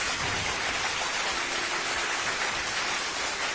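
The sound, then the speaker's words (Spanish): Applause requested by the production crew, a dense, steady patter of many hands clapping at an even, fairly loud level for a few seconds, with no voices over it. “Producción, aplausos, por favor.”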